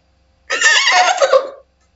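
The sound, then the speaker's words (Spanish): A person practicing a vocal imitation whinnies like a horse in one loud, wavering burst of about a second, bright and quavering, with no other talk around it. “Eso fue un poco un caballo teniendo una CB.”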